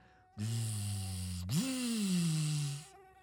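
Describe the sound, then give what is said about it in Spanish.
A person hums a steady nasal buzz in imitation of a mosquito, the pitch dipping, then swooping upward after a brief break and slowly sliding down again for about two and a half seconds. “Los mosquitos tres veces malditos, los mosquitos.”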